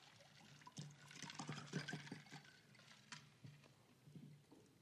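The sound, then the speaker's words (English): Water is poured into a glass, with a burst of splashing and gurgling followed by a few softer trickles and clinks, over a faint low hum. “So he so he goes to grab some water.”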